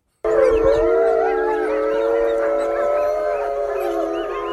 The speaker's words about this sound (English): Howling wolves.